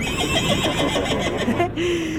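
A horse whinnies in a shaky, wavering neigh that rises and falls over about two seconds, moderately loud, with no talking over it.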